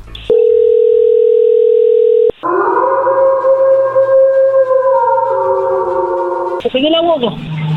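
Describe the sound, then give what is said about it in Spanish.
A steady, loud telephone tone hums for about two seconds as a prank call is dialed to a woman, then cuts off abruptly, followed by layered wavering tones on the line and then a voice answering. “Vamos a ver qué sucede, le va a marcar el lobo.”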